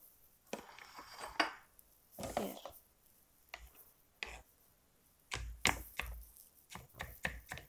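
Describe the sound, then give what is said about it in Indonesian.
Knife chopping food very finely on a cutting board that rattles and wobbles, while preparing nuggets for frying, producing irregular bursts of sharp clacks and knocks, some rapid, some spaced out, with brief gaps between. “siap kak sekarang gue persiapan goreng nugget ini talenannya kenapa kayak terombang ambing gitu sih kak terambang”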